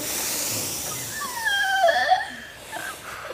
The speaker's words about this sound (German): Einatmen in den Bauch rein. Und nochmal tief einatmen.